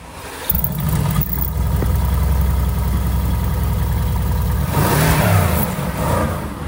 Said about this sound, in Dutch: weet je dus van welke auto je zojuist het geluid hoorde?